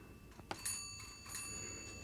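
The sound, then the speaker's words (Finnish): A doorbell rings with a few quick, bright metallic chimes whose tones linger and fade; fairly quiet, with no one speaking. Visitors coming to greet new neighbours are ringing it. “Nyt he soittavat ovikelloa.”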